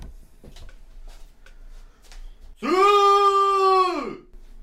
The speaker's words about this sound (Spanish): me voy a alejar un poquito porque voy a gritar y no quiero que suene tan fuerte, ¿ok? Mira, denme un segundo.